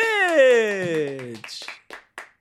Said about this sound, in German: Ich mach da noch Applaus. Ich mach da Applaus drunter, klingt das geiler.